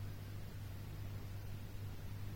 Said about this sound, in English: Can you hear the washer?